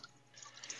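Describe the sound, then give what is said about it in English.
Quiet outdoor dripping water: a few soft, quick droplet plinks over a faint, airy background hiss, with no one speaking. “You can hear the birds in the background, and there's some water and stuff like that.”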